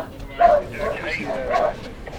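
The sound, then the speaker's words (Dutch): A dog barks twice, short sharp woofs separated by about a second, with a faint murmur of voices in the background. “Hou rekening met elkaars honden, jongens.”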